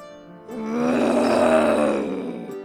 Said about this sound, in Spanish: Ahora podía ver un monstruo gigante acercándose a él. El monstruo volvió a gruñir.